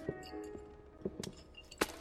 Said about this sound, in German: Er knallte die Waffe auf den Tresen.